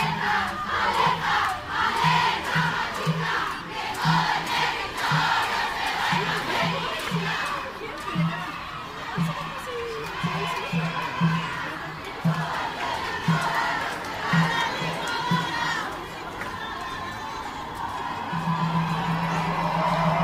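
A large outdoor protest march crowd at the courthouse chants and shouts slogans in a steady rhythmic cadence, many voices rising together in repeated bursts, loud and continuous throughout.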